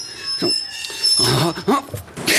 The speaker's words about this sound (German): Nach einigem Rumpeln setzt ah. sich der uralte Lastenaufzug ächzend aus dem Keller kommend in Bewegung. Also. Einen Moment klingt es, als habe er sich in den Stahlschienen verkantet. Ah. Aber er kommt oben an.